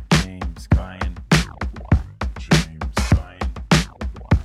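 A punchy drum break loops steadily in the background, with booming kicks and bright, crisp snare and cymbal hits in a tight, repeating groove, played fairly loud throughout.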